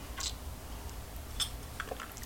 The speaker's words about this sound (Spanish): El café ya se ha refrescado, voy a tomar poco porque el polvo de café hay que estirarlo todo lo que se pueda. Así que me voy a dar un buchito breve.